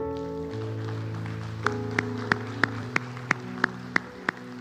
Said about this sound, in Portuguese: Aplaude a Deus, aplaude.